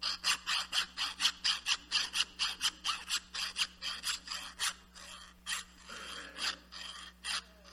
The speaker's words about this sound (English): If iron is supposed to sharpen iron, let me put this microphone down for a second. I'm going to put it right here so y'all can hear the lovely noise, okay? You get the iron, in contact with the other iron, and you just make this nasty, lovely sound.